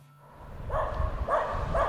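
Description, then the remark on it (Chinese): Wild dogs barking at Mount Kailash: three short, harmonic yelping barks spaced about half a second apart, moderately loud over a low, steady rumble, with no one talking. “在冈仁波齐是会有野狗的”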